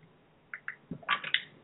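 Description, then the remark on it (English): Someone sips a drink of water: a couple of soft wet clicks, a low gulp, then a brief slurping swallow, quiet and with no talking. “Um, oops, I just have to get a drink of water, guys.”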